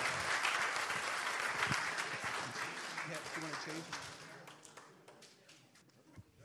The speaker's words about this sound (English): All right, let's give him another round of applause.